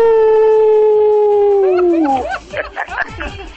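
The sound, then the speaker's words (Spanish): A person lets out a long, loud imitation of a howl, holding one steady wailing note that sags downward at the end before breaking into excited laughter and chatter. “Mi abuela aúlla.”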